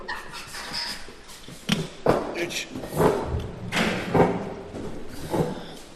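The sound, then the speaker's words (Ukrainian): A broken chair is lifted and shifted around, producing several dull wooden thumps and knocks spaced a second or so apart, with faint voices murmuring in the background. “Ні, ні, не цей стілець. Ну подивись на нього, він поломаний.”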